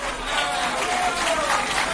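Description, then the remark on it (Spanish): A steady wash of crowd applause at the mention of Ayuso, dense and fairly loud, holding evenly for a couple of seconds, with faint voices mixed into the clapping. “Es un día muy triste porque cuando digo Ayuso, oigo aplausos.”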